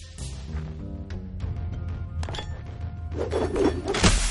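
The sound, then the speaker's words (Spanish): A heavy hammer thrown against a tree, landing with dull wooden thunks, then a final louder thud as it falls to the ground, over a low rumbling background. “Ha tirado un martillo enorme al árbol y cae al suelo.”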